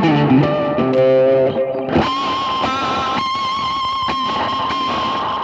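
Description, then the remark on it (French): An electric guitar rings out with strong, harmonically dense tones, then shifts into a harsh, heavily processed sustained sound with buzzing distortion and a steady effect-laden drone, played through a wrongly set-up effects chain. “ah, pourquoi j'ai ce son-là Ah oui, pardon. Je... Excusez-moi, je m'étais planté de chaînage.”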